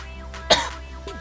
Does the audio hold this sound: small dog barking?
no